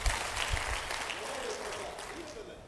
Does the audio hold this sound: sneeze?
no